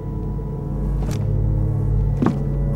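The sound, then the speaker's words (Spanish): A steady low motor rumble with a faint whine of a hoverboard rolling along in a dark gymnasium, growing slightly louder, with two brief whooshing bursts partway through. No voices. “Creo que escucho la hoverboard.”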